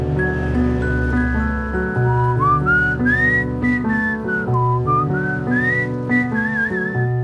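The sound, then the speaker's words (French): A melodic tune whistled clearly over a steady instrumental backing, the bright whistled notes gliding up and down in a cheerful, continuous phrase without any talking. “Ils rentrent se coucher en sifflotant dans les rues.”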